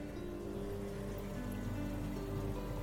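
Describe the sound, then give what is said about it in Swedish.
A dishwasher runs steadily, its water spraying in a constant rain-like patter over a low motor hum, with no voices. “This is a diskmaskin.”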